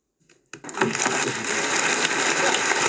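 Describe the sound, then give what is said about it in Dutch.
After a brief hush, audience applause for a poem recited from memory erupts abruptly and holds steady: a dense, loud wash of many hands clapping with a crackly, rain-like texture and no voices. “Nou, dat applaus was ook, eh, dat was al het publiek van.”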